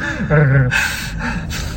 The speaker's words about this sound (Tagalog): Yun, humihinga din talaga ako ng malalim doon.